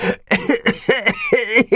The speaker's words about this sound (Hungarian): Szegény nemecsek köhögni kezdett. Neki támaszkodott a falnak.